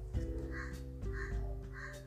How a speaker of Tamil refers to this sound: பின்னர் காகம் மேலெழுந்து வானத்தில் உயர்ந்து மகிழ்வுடன் கத்தியவாறு பறந்தது